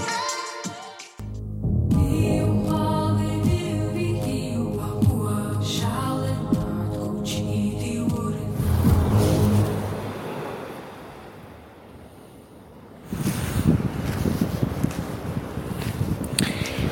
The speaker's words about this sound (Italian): Oggi inizio la registrazione con il suono del mare Finalmente ho raggiunto il mare. Dopo giorni ad attraversare la pianura padana e l'Appennino, eccomi a camminare sulla spiaggia e viva al mare guardando il tramonto.